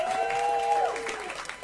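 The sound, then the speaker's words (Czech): An audience claps in a dense, steady burst of applause for a married couple who have just sung a song, with a sustained whistle-like tone riding over it during the first half before fading into the continuing clapping. “tím, co jsme slyšeli právě tady od toho úžasného manželského páru, který nám tady teďka zaspíval, vystřihnul, vyšvihnul, tuhle písničku, jestli chcete, pojďme jim, nebo pojďme jim ještě zatleskat, jo, já bych chtěl.”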